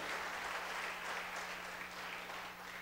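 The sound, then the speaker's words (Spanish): An audience applauding steadily as an applause to the King, God, a dense wash of many hands clapping at an even, sustained loudness for the full stretch, with no distinct individual claps standing out and no speech. “Es un aplauso al rey, dígale gracias Señor.”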